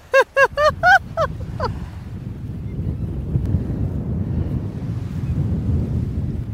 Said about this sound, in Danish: Uh, øj, det er nogle store bølger.